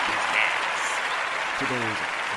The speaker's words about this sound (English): Can I get a round of applause, please? Thank you. Great job to my Dallas Cowboys.